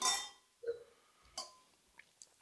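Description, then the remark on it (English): Wine glasses clink together in a bright, ringing toast, followed by a few softer taps and knocks of glass or tableware over a quiet background. “So cheers. Um, yeah, cheers.”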